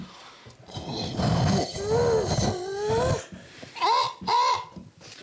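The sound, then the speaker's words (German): A person imitates a seagull with their voice, fairly loud: a strained, nasal stretch of squawking followed by two short, sharp rising-and-falling cries. “Das ist äh, die Möwen-Version.”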